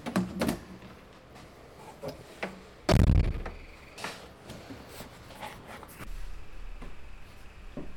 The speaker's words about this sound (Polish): Wszedłem na górę. Teraz należy otworzyć drzwi. Wchodzę do sali.